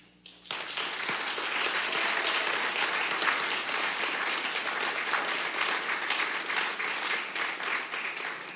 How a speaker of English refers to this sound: So this morning, I'm, I want to give the Lord a clap.